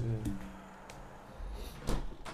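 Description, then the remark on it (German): A window being closed: a low rumble at first, then a few dull knocks and scrapes, ending in a louder clunk as it shuts. “Ah, mach ich halt wieder zu, Alter, ey.”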